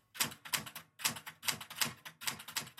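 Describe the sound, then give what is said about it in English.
Crisp clacking of typewriter keys struck in uneven little bursts with short pauses between, slow two-finger typing at night, as Elizabeth wrote her first book on death and dying in 1968, with no voices present. “She wrote it in 1968 over a course of about three months, just typing with two fingers at night.”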